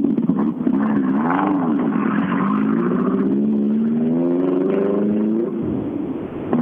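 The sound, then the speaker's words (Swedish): A Subaru engine revs up and down, its throaty low growl rising and falling in pitch with a steady, loud rumble before easing off near the end. “Ja, inget tvivel om att det var en Subaru.”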